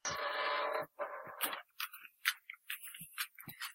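A door hinge creaks in two drawn-out, scraping groans, followed by a scattered run of short clicks and ticks. Fairly quiet, with no one talking.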